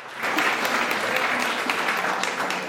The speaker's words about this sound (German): Das ist euer Applaus. Ja, danke.